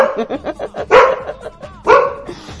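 A dog barks in a quick run of short yaps, then lets out two louder, drawn-out barks with brief pauses between, close and fairly loud.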